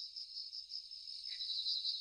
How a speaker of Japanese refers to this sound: ああ、夏の夜の空気を思い出しますね。この音があることによって、よりリアルに、そしてクリアに星空を楽しめるなと思います。音自体もいろいろ種類があるみたいで、今はスズムシの音なんですけれども